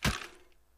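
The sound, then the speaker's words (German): A vacuum cleaner topples over with a single sharp, loud clatter, then a brief rattling ring that fades quickly into room quiet. No one speaks. “Das war, glaube ich, der Staubsauger. Der ist einfach umgefallen.”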